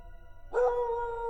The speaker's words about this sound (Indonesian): Malam itu, aku tidur di pendopo bareng bapak bersarung dan anjing hitam yang melolong-lolong ke arah kamarku.